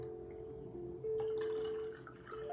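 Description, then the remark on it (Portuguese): A little more water trickles and splashes into a small mug, with a steady tone rising as it fills and a few drips at the end, with no one speaking. “Deixa eu só colocar um pouquinho mais de água na minha canequinha.”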